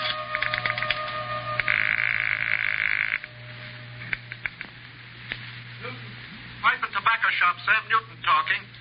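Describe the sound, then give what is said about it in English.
A steady telephone tone and a buzzing ring give way to a series of sharp dial clicks as a number found on a slip of paper is dialed, followed by a voice speaking faintly over the line at the end. “So, with nothing more to lose than another millimeter off the tip of my index finger, I went back to dialing.”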